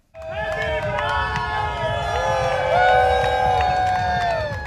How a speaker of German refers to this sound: Bunt, laut und mit guter Stimmung zieht die Demonstration am Samstagmittag durch die Frankfurter Innenstadt. Dieses Mal mit großem Zulauf.